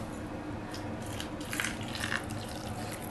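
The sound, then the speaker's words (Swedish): Gelatin broth is poured steadily over crayfish and parsley in a plastic-wrapped food container to make an aspic, a soft continuous trickle with a few brighter splashy moments partway through, fairly quiet, with no voices. “Äh, jag häller på.”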